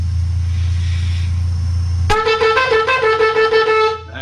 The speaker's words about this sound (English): I'm going to sound the Teruah, which is to sound the alarm of approaching enemy, which is the nine broken blasts.